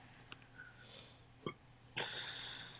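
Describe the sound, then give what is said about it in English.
A short, quiet burp stands out among faint mouth and throat noises, followed by a brief scuffing rustle near the end. Nobody speaks. “Sorry, I had to burp there.”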